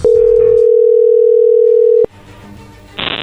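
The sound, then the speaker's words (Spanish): A loud, steady telephone dial tone on a call with a bad line and poor signal hums at a single mid pitch for about two seconds, then cuts off abruptly into quiet line noise that ends in a burst of hiss. “Cuélgale, cuélgale, se oye muy mal, márcale de nuevo.”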